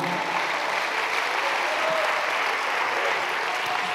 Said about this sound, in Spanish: ¿Cuánto le da un aplauso a Dios por eso, amado hermano?